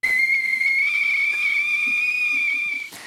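A whistling kettle sounds one loud, steady high-pitched note with a faint breathy hiss, holding almost unchanged for about three seconds before cutting off abruptly. No one speaks.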